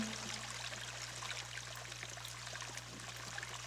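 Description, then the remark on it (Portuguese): Soft, steady trickling water runs continuously at low volume, a gentle babbling texture over a faint low hum, with no voices present, as someone takes a sip of water. “Mas o primeiro passo é para que você coloque a água na boca”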